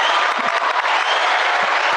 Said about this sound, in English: I think if any, if there was any ever a time to press that applause button, I think just now was it.